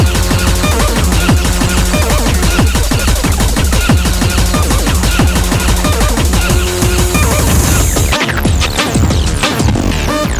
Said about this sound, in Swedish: Sen får ju inte heller glömma den breakcore som hämtar sin inspiration från den tidiga rave-scenen på 90-talet med sin hetsiga dunka-dunka, ettriga melodier och svettigt tjackpundartempo. Som det här.